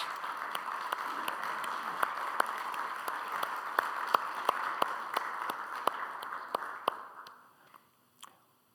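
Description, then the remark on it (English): An audience applauds warmly to honor the mothers present, a dense steady patter of many hands clapping that tapers off near the end, followed by one last stray clap. No one speaks. “Would you give them applause?”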